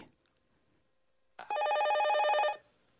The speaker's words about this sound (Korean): 재정경제원의 윤중현 금융정책실장에게 전화 한 통이 걸려옵니다.